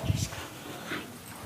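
A dog whimpers quietly, giving a short whine near the start and a second, softer whine a moment later, against a low background.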